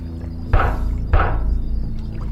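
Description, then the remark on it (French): Two heavy, hollow thuds strike against the rear door of a van about half a second apart, loud, over a steady low rumble with no voices. “revient derrière et voit un tueur en série taper contre la porte arrière de la fourgonnette avec la tête de son mari.”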